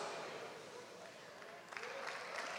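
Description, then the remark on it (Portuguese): An audience claps steadily in a dense, continuous wash of applause that grows sharper and more energetic toward the end, with a hint of voices mixed in. “Aplauda com mais força.”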